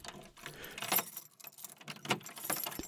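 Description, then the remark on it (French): Metallic clicks and jangles of several doors and locks being worked behind a house's front door after the doorbell is rung, several sharp clanks spaced a second or so apart, fairly quiet, with no voices. “Jonas entend plusieurs bruits de portes et de serrures.”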